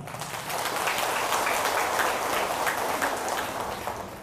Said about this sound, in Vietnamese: và cũng nên tâm tâm sự với bản thân mình bằng một tràng vỗ tay thật là lớn